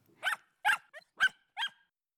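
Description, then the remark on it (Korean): A small puppy, limping as it runs over, gives four sharp, high-pitched yaps in a steady rhythm, with a brief softer whine slipped in between, fairly loud with no talking. “뭔가 이상한 기분이 들어서 주변을 두리번거리는데 나의 사랑스러운 강아지가 쩔뚝거리며 달려오고 있는 것이 아닌가.”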